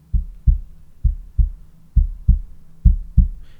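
Deep, booming bass drum (bombo) thumps fall in steady pairs about once a second, like a heartbeat pulse, loud with nothing else playing, in a song's introduction.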